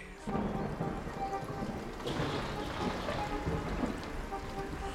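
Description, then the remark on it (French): A storm in a vast forest, with steady, heavy rain pouring down and deep thunder rumbling underneath, a dense, continuous wash of noise that stays loud throughout. “Alors qu'ils marchent dans l'immense forêt qui borde leur maison, une tempête se lève.”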